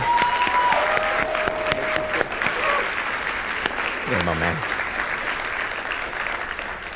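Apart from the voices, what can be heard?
audience applause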